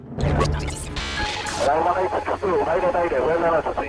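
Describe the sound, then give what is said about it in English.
Loud bursts of crackling radio static and hiss fill the first couple of seconds, then a distorted, garbled voice comes through over the interference. “What's going on? Interference?”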